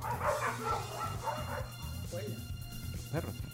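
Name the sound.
dogs barking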